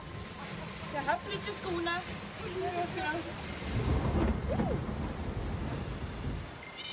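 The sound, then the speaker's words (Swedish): Heavy late-May rain pours down steadily in Stockholm while low thunder rumbles, swelling louder toward the end; faint voices murmur underneath early on. “I slutet av maj öste regnet ner för att sen klarna upp till badsugna stockholmares stora glädje.”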